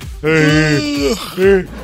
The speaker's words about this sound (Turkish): Zincirlemeye girdik karşılıklı esniyoruz. Bizi biri durdursun ya.